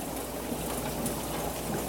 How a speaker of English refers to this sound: So here I am, filling with cold water. And I think I'm down to the end of my water cooler.